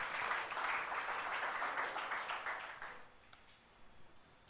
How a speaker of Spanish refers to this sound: Solo Cristo murió por aquel que te dio bronca. Dale un aplauso a él. Ese Cristo que tú y yo debemos conocer.